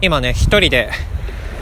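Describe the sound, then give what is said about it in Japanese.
A man speaks briefly while walking along the shore, over a steady, rushing wash of real ocean waves on a beach in Fukuoka City, Fukuoka Prefecture, Japan; once he stops, the surf continues on its own as a constant, fairly loud roar. “海岸を歩いてますはいこの海の音めっちゃ頭から聞こえてると思うんですけどこれリアル海の音です”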